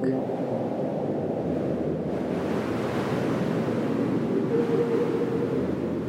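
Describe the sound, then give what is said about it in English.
Strong wind roars without letup, a dense, loud rushing with a faint howling edge that rises slightly toward the end, like a gale buffeting. No voices are heard. “But then, as the sun faded and the moon had risen high in the cloud spotted sky, the winds had gone berserk.”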